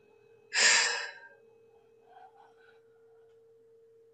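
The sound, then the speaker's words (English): During energy work, a single loud, breathy exhale rushes out for about half a second, followed by faint, softer breath noises and a steady low hum. “And whenever um, I do this work, there's a lot of breathing.”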